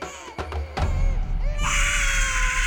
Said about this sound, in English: Mary screamed. She wailed. She cried with the anguish of someone who had just discovered the cruelty of the world.